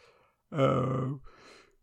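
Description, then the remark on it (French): An audible yawn made while recording late in the day: a soft intake of breath, then a drawn-out voiced groan lasting most of a second, trailing off into a breathy exhale. No talking. “Pardon, excuse-moi de bailler, c'est un peu tard.”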